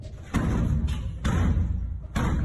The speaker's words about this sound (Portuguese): Do lado de fora do corredor, a criatura brutalmente atacava a porta.